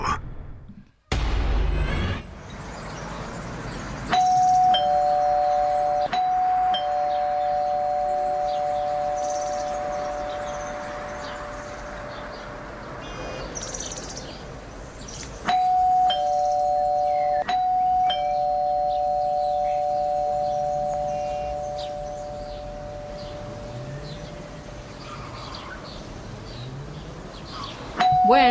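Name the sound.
house doorbell ringing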